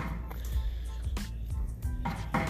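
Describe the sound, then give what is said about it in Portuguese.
Someone repairing a door, heard while out on a walk with cars passing and birds singing: a few irregular metallic clanks and knocks, spaced unevenly over a steady low background rumble. “Estão ouvindo os barulhos aí do alguém tá arrumando uma porta, o carro tá passando, os pássaros estão cantando.”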